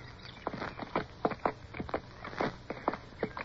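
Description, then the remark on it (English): Hooves clip-clop in an uneven, steady walking rhythm, as though a few weary horses plod along together carrying riders at first light, with soft knocks and no voices. “With the first light, we were off again, on horses which seemed wearier than ever.”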